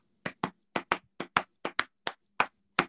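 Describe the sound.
About a dozen crisp hand claps beat out a syncopated rhythm imitating a well-known song's beat, with paired claps and short pauses between groups. No voices or music accompany them.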